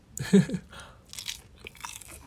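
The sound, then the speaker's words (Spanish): A fairly quiet bite followed by a few soft, wet chewing and crunching sounds, irregular, with no talking, as someone eats sushi. “Oye, está delicioso el tuchi.”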